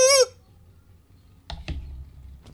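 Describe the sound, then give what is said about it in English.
A brief, loud rooster crow cuts off almost immediately, followed by near silence and then a few sharp knocking clicks. No one speaks. “hears the the rooster crow and uh, begins to run.”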